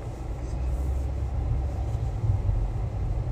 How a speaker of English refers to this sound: And here we go with this traffic jam here. Sorry, guys. Um, people are doing stuff here they ain't supposed to be doing.